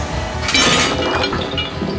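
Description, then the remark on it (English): A loud metallic crash as two crane hooks collide, with a bright clattering burst near the start, followed by jangling, rattling as the hooks wrap around each other in a big knot, ringing and clinking for a couple of seconds. No voices. “Their hooks crashed together and wrapped around each other in a big knot.”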